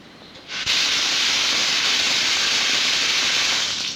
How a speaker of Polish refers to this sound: Jestem w łazience, puszczę wodę w wannie na chwilę. Tylko tak, żeby mi się to nie zalało gdzieś.